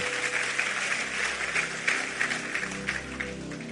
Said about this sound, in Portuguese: Deus ama ao que dá com alegria. Vamos aplaudir a ele. Vamos ficar em pé.